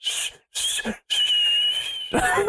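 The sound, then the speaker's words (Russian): A person whistles in three breathy bursts, mimicking an enemy signal call: two quick whistled notes separated by brief silences, then a longer sustained whistle that breaks off into a rougher, airy finish. “Да, свистун ты, конечно, от бога, не поспоришь.”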